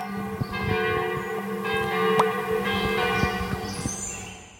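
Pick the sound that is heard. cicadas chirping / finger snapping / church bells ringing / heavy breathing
church bells ringing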